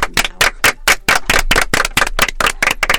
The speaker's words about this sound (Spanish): Muchísimas gracias a todo, aplausos.